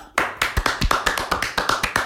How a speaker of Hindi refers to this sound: बहुत बढ़िया तालियां बजवा दी तूने मस्त